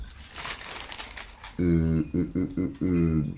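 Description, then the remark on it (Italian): Newspaper pages rustle and crinkle in a dry, papery burst for over a second as someone leafs through looking for a page, then give way to a voice making drawn-out hesitant hums in short broken bursts. “Ehm, adesso basta sfogliare e ci si arriverà facilmente.”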